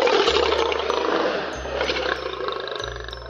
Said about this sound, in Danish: Og lige pludselig så bliver stillheden i møllen brudt af et kæmpe løvebrøl